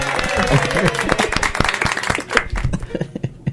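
Several people clap in a brisk, dense burst of applause, loud at first and thinning into a few scattered claps before fading out, with some voices cheering underneath.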